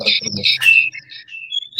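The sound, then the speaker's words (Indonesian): A bird chirps in a quick run of bright, high tweets and short whistles, fairly loud, with a low murmur underneath at the start. “kicau mania mantap mantap”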